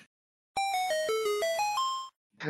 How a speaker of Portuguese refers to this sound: Ela respira fundo, Canção dos segredos. E vocês ouvem eventualmente as notas sendo tocadas na velocidade certa.